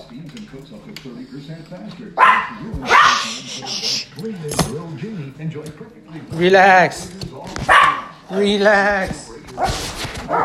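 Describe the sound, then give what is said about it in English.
A miniature pinscher yaps and barks excitedly in sharp, high-pitched bursts as its owner comes into the house, repeating several times while a man speaks calmly over it. “I'm gonna get into my house but my dog is yapping, so I'm gonna get in. He's gonna bark and hold on.”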